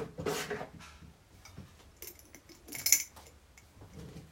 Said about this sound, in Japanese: 今は紅茶の茶葉が入った瓶を開けた音閉めた音置いた音うるさいね